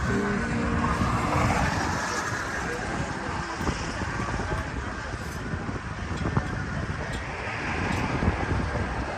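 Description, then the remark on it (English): Steady outdoor wind on a breezy day at a car show in Crawfordsville, Iowa, blows continuously, a loud, dense low rumble with gusty buffeting against the microphone that carries on unbroken from start to finish. “It's a breezy day here at Boxcar Treasures, Crawfordsville, Iowa, but uh, beautiful day for sure.”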